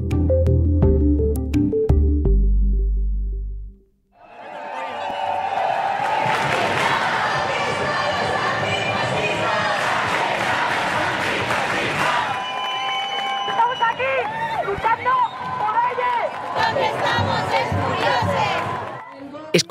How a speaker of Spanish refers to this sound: escuchamos cánticos del pasado jueves en Madrid, Día Internacional del Orgullo LGTBI.